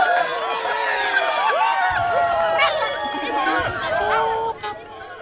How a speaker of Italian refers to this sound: La folla esplose in un boato. Tutti lo acclamarono.